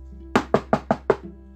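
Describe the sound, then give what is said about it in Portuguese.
Five quick, evenly spaced knocks on the door of a grandmother's house, crisp, each one sharp with a short decay, over a faint steady low hum and no voices. “Quanto isso, o lobo foi correndo à casa da vovó e bateu na porta.”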